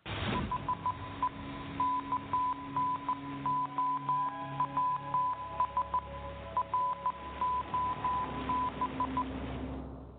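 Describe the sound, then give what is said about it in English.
A steady high beep keyed on and off in short and long bursts, tapping out Morse code over a faint radio-like hiss for about ten seconds, with no talking. “Magic interview machine, Morse code me out.”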